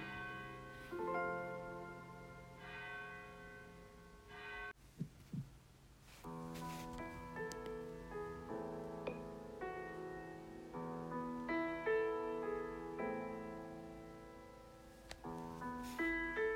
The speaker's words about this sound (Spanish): porque ya ya es medianoche, ya ya le vamos a celebrar, ya suenan las campanas, ya llega el Señor, ya ha nacido.